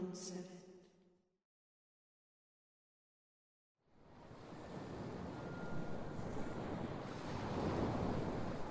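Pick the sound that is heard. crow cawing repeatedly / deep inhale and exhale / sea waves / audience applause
sea waves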